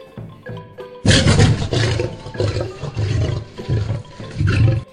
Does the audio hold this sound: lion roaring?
yes